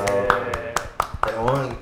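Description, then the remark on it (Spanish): Sharp, evenly spaced claps, about seven in under two seconds, ring out over a sustained tonal voice, a steady beat of applause rather than a dense crowd roar. “Un aplauso por el trabajo del jueves.”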